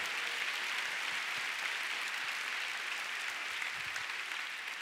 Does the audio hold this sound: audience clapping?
yes